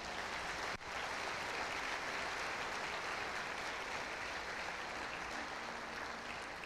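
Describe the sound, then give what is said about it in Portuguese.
A church audience applauds Jesus steadily, a dense, even wash of many hands clapping that stays loud and sustained throughout, with only a brief dip near the start and no talking over it. “Dê um forte aplauso a Jesus nesse lugar.”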